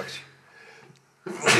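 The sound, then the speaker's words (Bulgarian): A quick breathy intake, a brief hush, then one loud sneeze bursting out sharply and ending abruptly. “Тя, е да, на здраве, на здраве.”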